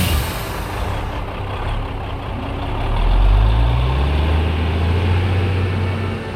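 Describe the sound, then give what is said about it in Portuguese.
A bus engine rumbles steadily as it drives along, its deep drone rising in pitch partway through as it picks up speed, continuous with no voices. “E o ônibus rodando.”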